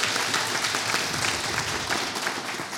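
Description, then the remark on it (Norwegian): An audience claps steadily to vote that Velcro on the penis was the most fun idea, a dense wash of many hands that holds at a fairly even level for nearly three seconds, with no voices standing out above it. “Hvis dere syns eh, borrelås på tissen var mest eh, gøy, så klapper dere nå.”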